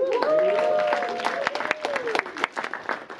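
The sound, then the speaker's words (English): An audience bursts into applause for the media team, a dense patter of many hands clapping, while a voice speaks over the opening moments before the clapping carries on alone. “hey, y'all, let's give uh, our, teach, our, our uh, media team a hand today.”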